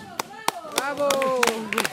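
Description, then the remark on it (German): Scattered hand claps from a small group ring out at an uneven pace while voices shout "Bravo" and cheer over them, fairly loud, greeting the last hikers to arrive after a strenuous stretch of the walk. “Nach dem Kraftakt werden die Letzten mit Bravo und Beifall begrüßt.”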